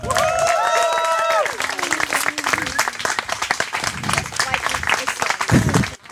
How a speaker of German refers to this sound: Und wir haben mit der Höchstwertung äh, von 51 Punkten eine Siegerin. Sie mag Menschen, aber nicht nur. Riesengroßen Applaus für die Siegerin Mize Medusa.